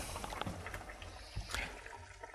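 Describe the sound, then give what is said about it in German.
Water pours into a mixture with a steady, gurgling splash for a couple of seconds, fairly quiet, with no one speaking. “Dann Wasser.”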